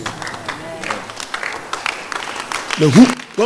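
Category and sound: crowd, audience clapping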